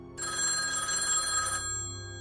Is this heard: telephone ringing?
yes